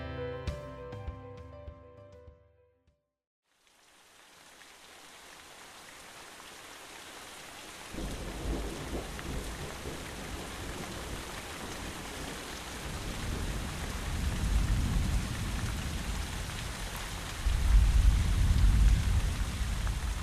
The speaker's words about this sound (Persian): بارون تا حالا دلتون خواسته زیر بارون جایی باشی من شدیدترین بارون زندگیم رو دلم خواست توی خیابون تجربه کنم